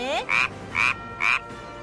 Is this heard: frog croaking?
yes